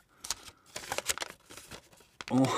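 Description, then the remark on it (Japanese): Crisp crinkling and rustling of paper in quick irregular bursts as a sheet taken out of a yellow gacha capsule-toy capsule is handled and opened, a handwritten letter, followed at the end by a brief voice. “うんはいはい中に1枚の紙が入ってます、はなんだこれ”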